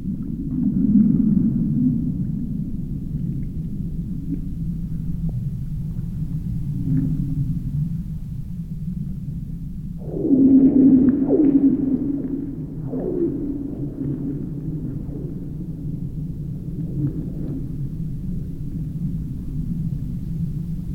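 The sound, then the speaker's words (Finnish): Low, booming rumbles roll beneath a steady hum, broken by sharp descending pings and eerie whale-like twangs, the strongest burst arriving midway, as the snowless frozen ice of Lake Kallavesi sings in hard frost at night under a clear starry sky. “Ja Lauri Hallikainen siellä pimeydessä tallentamassa tätä hetkeä, kun kallavesi soi.”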